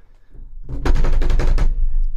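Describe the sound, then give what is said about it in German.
A quick run of about half a dozen hard knocks on a wooden table, sharp and fairly loud, coming in a rapid burst with no talking. “Ist irgendwie, ist es anders auf dem Tisch zu klopfen.”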